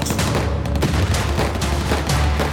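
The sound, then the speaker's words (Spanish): Sustained machine gun fire, a dense rapid burst of shots running continuously and loudly, with booming low-end impacts layered underneath and no voices. “pónganse pecho tierra, porque hoy el atole agarra su metralleta, se pone su pañoleta de Rambo y le entra de lleno a los balazos contra los narcos y mafiosos.”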